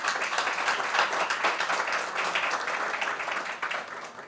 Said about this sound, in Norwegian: Eh, velkommen til dere. Jeg vil gi dem applaus.